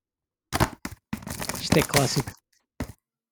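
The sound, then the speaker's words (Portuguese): A dried-out, brittle plastic video game case is snapped shut by hand: a few sharp, crackling clicks at the start and one more at the end, with a brief spoken remark in between. “Vou tentar, peço desculpa pelo barulho, vou tentar fechar aqui isto.”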